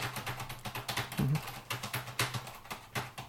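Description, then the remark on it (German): Steady typing on a non-mechanical keyboard held on the lap, soft rapid key taps in an uneven rhythm, fairly quiet, with no voices. “Ja, das ist, das ist keine mechanische. Also es gibt bei den mechanischen dann auch nochmal Unterschiede.”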